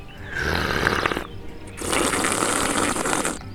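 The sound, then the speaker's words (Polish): Two long, loud slurps in a row: airy, bubbly sucking bursts of about a second each with a brief pause between, made by a man's mouth imitating a double slurp. “i klasyczne jest takie z mlaskaniem, a takie podwójne to brzmi tak.”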